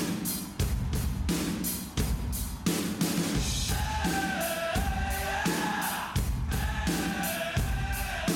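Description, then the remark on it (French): A frenzied crowd cheers loudly and continuously, with yells and whoops over a steady rhythmic pulse; a wavering higher tone weaves through the roar in the second half. “Bon, on y va La foule en délire nous attend.”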